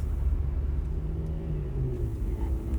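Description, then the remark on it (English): A steady, heavy low-end rumble of a car moving at about 90 miles per hour on an empty road, pedal all the way down, with a faint rising engine tone; continuous road and engine noise fills the whole stretch without any voices. “The pedal is all the way down. The car is going about 90 miles per hour.”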